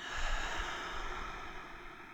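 A long, steady breath pushed out through the mouth during a deep-breathing exercise, after breathing in through the nose: a soft airy whoosh that holds for about two seconds, fairly quiet, with no talking.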